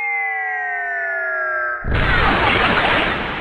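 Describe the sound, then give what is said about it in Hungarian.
A steady, slowly falling whistle-like tone is cut off by a single loud gunshot, its harsh blast trailing into a noisy rumble that fades slightly toward the end. No one speaks. “aki egyetlen lövéssel képes leteríteni a Mikulás segédjét a rénszarvast”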